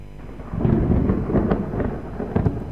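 Thunder rolls in low, heavy rumbles over a steady hiss of falling rain, with a few sharper crackles near the end. No one speaks.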